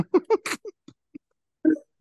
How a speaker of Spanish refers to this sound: Me duele mucho el hipo. ¡Au! Puta madre. Perdón. Continuemos esta conversación, se ve que te da hipo.